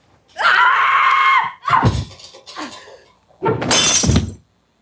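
A woman lets out a loud, sustained scream during a domestic fight with her husband in an apartment, followed by sharp crashing impacts and a bright burst of shattering glass, intense, with no talking.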